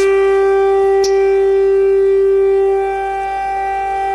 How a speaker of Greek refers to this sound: Σιρήνες. Και όπως βλέπετε και όπως ακούτε έχουμε προειδοποίηση για μια ακόμη ε, φορά.